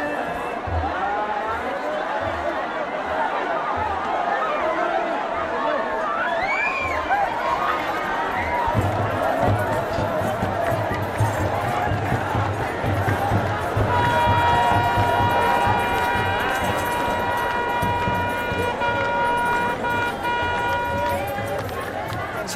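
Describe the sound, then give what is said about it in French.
A joyful crowd of Ethiopian Christians at a basin, being sprinkled with water blessed by priests to purify them: dense, steady cheering and chatter with scattered shouts, and sustained high tonal notes rising above the din in the latter half. “cette ambiance de joie que nous allons nous éloigner du bassin où la foule se fait asperger, purifier.”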